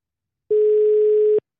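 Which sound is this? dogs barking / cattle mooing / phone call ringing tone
phone call ringing tone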